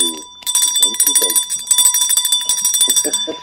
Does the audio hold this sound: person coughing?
no